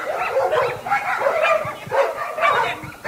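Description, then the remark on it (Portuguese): Several dogs bark repeatedly in quick, overlapping bursts, a loud and continuous mix of yaps and woofs with some higher yips and whines, with no voices. “Você cuida desses cachorros, viu”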